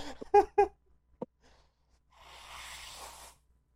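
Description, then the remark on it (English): A quick burst of laughter, then a pause, then one long, breathy nose blow right up against the microphone, a rushing, hissy blast lasting over a second. “Oh, you're gonna blow your nose into the mic?”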